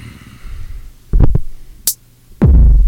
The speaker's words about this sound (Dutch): Dat was een kick. Een kick. Kijk, je hebt dus een kick. Hoor je hem? Boom, boom.